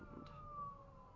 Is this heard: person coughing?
no